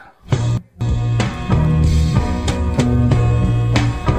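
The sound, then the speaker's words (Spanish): A 1969 psychedelic progressive blues rock song by a band from Seville, Andalusia, plays loud and full, with a steady pulsing bassline, crisp drum hits and cymbal splashes driving a mid-tempo groove after a brief opening pause. “Y como siempre ya sabéis que eh, empezamos con un clásico, esta vez del año 1969, que suena así de bien, mirar.”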